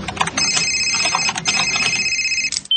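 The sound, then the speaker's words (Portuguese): A telephone rings loudly, its bright, steady electronic tone repeating in quick bursts with brief gaps, with no one speaking over it. “É, eu gostaria de falar com o dono do telefone.”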